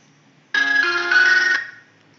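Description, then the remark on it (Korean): A phone ringtone for an incoming call from the speaker's husband sounds for about a second, a bright electronic tone with stacked harmonics and a pitch step partway through, then cuts off with a short fading tail. No one speaks over it. “잠깐 지금 남편이 전화가 왔는데 받지 못해서 잠시만요.”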